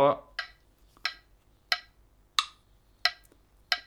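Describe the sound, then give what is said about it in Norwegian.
A metronome ticks at a steady tempo, about one sharp click every two-thirds of a second, six in a row with only faint background between them. “men en annen ting som metronom kan være veldig bra for Skal vi se om vi får lyd uh, gjennom her nå.”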